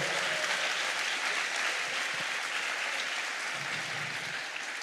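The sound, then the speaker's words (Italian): A crowd applauds steadily for the listeners following live on Radio Zoe, a dense wash of many hands clapping at even loudness throughout, with no voices standing out, tapering only slightly at the very end. “Fate un applauso a quelli che ci seguono da Radio Zoe.”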